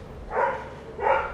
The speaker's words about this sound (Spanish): Disculpen por los perros, es que está pasando el cartero. Este, allá abajo. Es Rodolfo, ese es el perro del vecino.